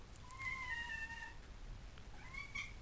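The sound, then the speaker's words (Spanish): A female pet cat meows twice, a drawn-out mew followed by a shorter rising one after a brief pause, not loud, over a low background hum. “esa es mi gatita Cleo que os saluda”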